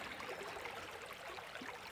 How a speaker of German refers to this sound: Es ist wirklich ein sehr menschenleerer Ort, aber ein mit sehr viel Natur. Die Schweinitz fließt hier entlang, man hört sie wahrscheinlich plätschern.